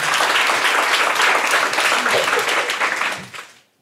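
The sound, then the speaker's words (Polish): A crowd claps loudly in a dense, steady burst of applause that holds for a few seconds, then quickly tapers off into silence, welcoming children's author Grzegorz Kazdebka. “Wielkie brawa.”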